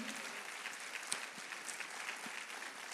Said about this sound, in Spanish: ¿Cuántos le dan un fuerte aplauso al Señor por el equipo de oración?